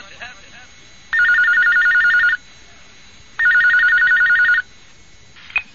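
A telephone rings twice during a recorded telephone question-and-answer session from 1992, each burst a rapid trilling bell lasting about a second, separated by a pause, loud against a faint background hiss.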